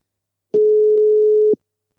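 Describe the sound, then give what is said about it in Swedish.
A single steady telephone ringback tone sounds for about one second as an outgoing call is placed to a friend, loud and clear, a pure sustained pitch with abrupt start and stop, followed by silence. “Ska vi göra så att vi ringer upp våran vän?”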